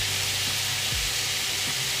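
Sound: food sizzling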